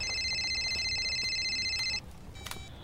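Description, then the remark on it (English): A satellite phone rings with a steady, high electronic trill for about two seconds, then cuts off, followed by a brief fainter chirp over a low background rumble. “Would someone get that? Who's left that's got a sat phone?”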